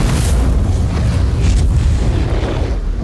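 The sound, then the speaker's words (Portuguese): A flamethrower's backpack fuel tank, hit by a bullet, explodes in a loud, deep boom that rolls into a sustained roaring rumble with crackling hiss on top, lasting about three seconds with no voices. “Uma bala pega na mochila do lança-chamas e explode.”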